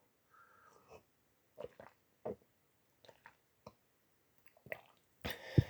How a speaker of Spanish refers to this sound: y la taza está muy fina, o como dicen los españoles, muy guay. Y bueno, para empezar, un sorbito del té como siempre.